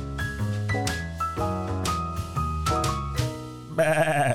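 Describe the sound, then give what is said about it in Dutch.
A short, bright musical jingle of plucky chords plays, then ends with a loud white goat bleat that wavers and quavers for under a second. “witte geit.”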